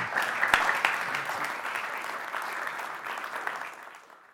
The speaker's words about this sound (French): Euh, je pense qu'on peut déjà vous applaudir pour la, la participation.